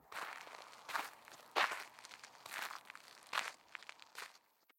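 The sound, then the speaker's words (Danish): Steady footsteps crunch over gritty ground as Geo walks on from a small lake, about half a dozen unhurried steps in an even rhythm, fairly quiet, with no voices. “Efter noget tid går Give videre.”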